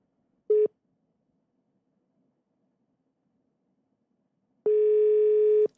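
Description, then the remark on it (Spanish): A cellphone ringback tone while calling former footballer Ricardo Osorio: a brief electronic beep, a few seconds of near silence, then a longer steady buzzing tone, clear, with no voices. “A ver, vamos a marcarle por WhatsApp. No, por celular.”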